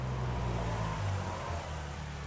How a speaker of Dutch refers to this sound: Plotseling stopt er een auto naast de stoep. Dat is niet de auto van Lucas.